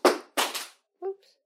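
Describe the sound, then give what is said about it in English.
Two sharp, noisy clattering crashes follow close together as a cat knocks something off a surface, then a brief tonal sound after a short pause. Loud, with no talking. “and that is the noise of a cat knocking something off something else.”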